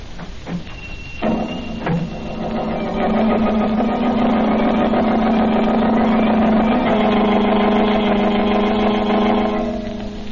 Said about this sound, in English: Again, the Blue Beetle rides the night wind in his speedy motor car, he sets out in search of the murderers of banker Ridley.